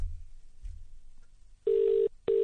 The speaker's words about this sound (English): Why's it got a British ringtone? I'm dialing New York City.